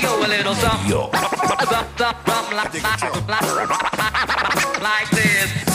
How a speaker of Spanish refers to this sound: Perfecto. Escuchamos la canción.